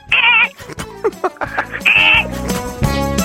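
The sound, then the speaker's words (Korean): A person vocally imitates the irritable-sounding signal of a bus door opening as passengers get off: two loud, buzzy high-pitched blasts separated by choppy hissing and clunking mouth noises, delivered forcefully with no other talk. “신경질 내는 버스 하차음이 뭡니까? 내릴 때 예. 나는 소리인데요 예 들어볼게요 문 열리면서 예”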